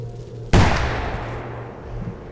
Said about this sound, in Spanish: Un disparo se escuchó a lo lejos, en lo profundo del bosque.